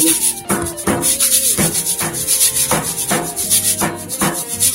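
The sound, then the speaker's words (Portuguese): A hand rubs across a wall in steady, rhythmic strokes, about six scratchy swipes, the wall played as a percussion instrument, with a low tonal hum sustained underneath. “É, até minha parede virou instrumento.”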